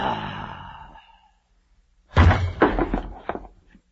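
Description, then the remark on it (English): A breathy exhale, then after a short pause a heavy thump and a quick series of clattering knocks as a general, taken ill, collapses onto the floor. “What are you doing on the floor, General?”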